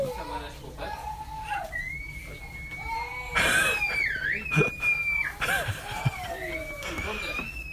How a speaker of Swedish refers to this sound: Men det är ingen som pratar med de här gråtande, skrikande barnen? Alltså, håller de, lyfter upp dem eller?